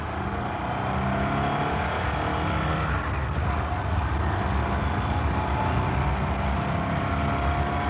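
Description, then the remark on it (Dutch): A car engine hums steadily at low speed, a continuous rumble with road noise that holds even throughout as the car rolls slowly along a street, following someone. No voices. “Rij maar zachtjes,”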